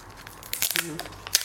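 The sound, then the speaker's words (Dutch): Plastic wrapping is removed while unboxing an Apple device and its remote, crinkling and tearing in a quick flurry of crisp rustles, then a brief pause and one final sharp crackle, with a soft voice murmuring faintly underneath. “Plastic verwijderen.”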